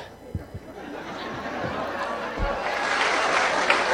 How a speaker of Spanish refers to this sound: Aplausos.